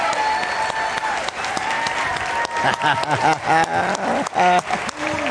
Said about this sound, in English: So we wanted to recognize them. They're, uh, we're awarding them the all star table. So we give them a huge round of applause.